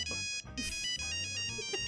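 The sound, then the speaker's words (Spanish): A polyphonic Nokia 1100 mobile phone ringtone plays a bright, chiming melody of stacked tones, steady for about two seconds with no one speaking. “Nokia 1100. Aparte era, viene con sonido polifónico.”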